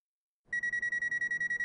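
An alarm clock rings as a man lies in bed, starting suddenly after a moment of silence, a steady high-pitched electronic tone pulsing rapidly and evenly, loud, with no voices.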